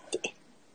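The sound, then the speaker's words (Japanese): Two quick, muffled thumps in close succession as a foot kicks a computer, followed by quiet room tone. No one speaks. “パソコンを蹴っただけです。”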